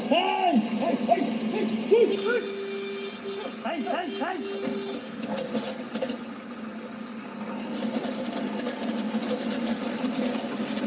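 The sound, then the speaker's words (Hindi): A JCB excavator works steadily, digging a path to free a trapped baby elephant, its engine droning with mechanical clanks and ratcheting throughout. Voices and rising calls sound over the machinery early on. “हाथी का बच्चा फंस गया है फंस गया है तो अब इसको निकालने के प्रयास हो रहे हैं और ये सोच रहे हैं कि ऐसे रास्ता बना दे जेसीबी से खोद के तो ये आराम से निकल जाए”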